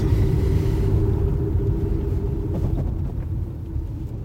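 A steady low engine rumble from inside a car driving on a bumpy forest dirt road, with faint irregular knocks and rattles, continuous throughout with no talking.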